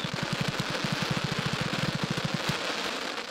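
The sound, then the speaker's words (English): Crackling fireworks filling the sky: a rapid, steady run of many small sharp pops over a constant hiss, ending abruptly with one slightly louder pop before the hiss continues alone. “nice crackle.”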